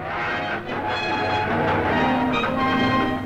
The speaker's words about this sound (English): Listen to the whinny of the iron horse, the whistle of a train in the night. This is the sound America made as she pushed a frontier into the Pacific. And this is the way she did it, with a red-hot firebox turning water to steam and steam into power